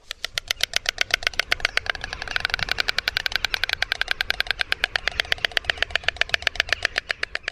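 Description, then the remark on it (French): A white stork, an icon of Alsace, clatters its bill to communicate, a fast, steady wooden rattle of sharp clicks that runs without pause for several seconds, loud, swelling slightly midway, with no voices. “D'autres espèces utilisent leur bec pour communiquer avec des claquements, telle une des icônes d'une certaine région française.”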